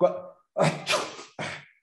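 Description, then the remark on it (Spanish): A deliberate sneeze: a voiced, rising intake followed by sharp, breathy bursts of noise, loud and over within about two seconds. “En este momento estábamos platicando, de repente yo estornudo y tú me contestas salud.”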